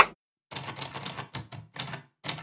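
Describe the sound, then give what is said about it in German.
Rapid typewriter keystrokes, typed by a woman's thin fingers, clatter in quick bursts separated by short pauses, fairly loud, with no voices present. “Die Schreibmaschine trippelt unter ihren dünnen Fingern wie in Stöckelschuhen immer um mein Ohr.”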